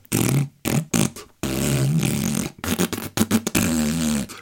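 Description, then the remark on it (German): A voice mimics the rattling propeller airplane of 5 Uhr Charlie with loud buzzing lip sputters: several short bursts, then longer sustained droning stretches broken by brief pauses. “dieses rappelnde Flugzeug da ansieht”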